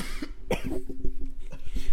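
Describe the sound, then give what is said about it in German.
A few raspy coughs break out in quick succession, one sharp burst standing out, followed by softer throaty hacks over a faint steady hum, with no talking. A man who is unwell keeps coughing. “Der hustet immer noch und es scheint ihm eher so semi gut zu gehen.”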